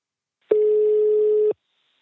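A single steady telephone ringback tone sounds for about one second, a clean mid-pitched hum that starts and stops abruptly, heard alone against silence.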